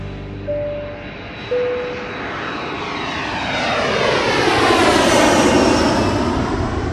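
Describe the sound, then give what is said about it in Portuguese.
A loud airplane engine roars overhead, its broad rumble swelling and shifting in pitch as it passes by, with a couple of brief tonal beeps near the start and no voices. “Seguimos na América do Norte, seguimos nos Estados Unidos, mas vamos voar lá para Indianápolis.”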